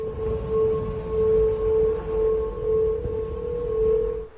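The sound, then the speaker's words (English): A steady, eerie tonal hum from the Golden Gate Bridge in San Francisco singing in strong wind on a windy day, with a sustained pitch that swells and fades in slow waves over a low rumble of gusts. “Turns out on a windy day, the bridge now hums.”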